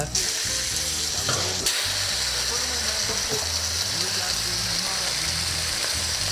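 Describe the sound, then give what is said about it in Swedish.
An entrecote steak fries in hot fat with a steady, loud sizzle and crackle that carries without pause through the whole recording, with a faint low murmur underneath. “Det är det här som jag aldrig vet hur man uttalar. Vi vanliga vet ju inte det. Nähä entrecote.”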